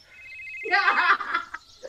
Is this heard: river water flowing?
no